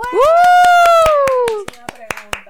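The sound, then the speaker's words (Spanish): Sharp, rapid hand claps ring out steadily for a couple of seconds to welcome a guest, the speaker's mother. A voice holds a long, gliding cheer over the first half, then the clapping continues on its own. “Bueno, ustedes si han escuchado los episodios, yo he hablado mucho de mami, o sea que un aplauso.”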